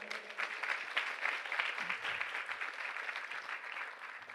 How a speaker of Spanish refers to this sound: ¿Cuántos dan un fuerte aplauso al Señor?